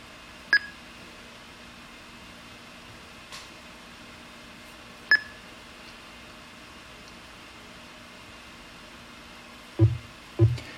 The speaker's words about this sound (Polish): O, jak słyszymy, pasek postępu doszedł do końca y, i teraz pasek postępu idzie od zera drugi raz. Y, to jest coś jak najbardziej spodziewanego. To jest tak zwane kodowanie pliku do formatu MP3